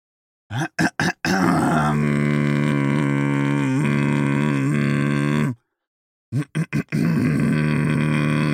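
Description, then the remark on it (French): A man demonstrates throat singing: a few short throat-clearing rasps lead into a long, loud, sustained guttural drone with rich overtones, held by maintaining the breath, then more brief raspy bursts after a pause. “Pour cela, vous allez commencer par vous racler la gorge plusieurs fois. Et l'idée, ça va être de pérenniser ce son en maintenant le souffle.”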